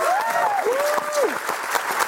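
A crowd claps steadily in a dense, loud wash of applause, with a couple of rising-and-falling whistles cutting through during the first second or so.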